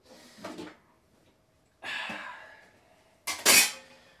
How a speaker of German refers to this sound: Ja, jetzt blubber ich euch hier zu, während ich die Abtropfschale der Kaffeemaschine sauber mache hier.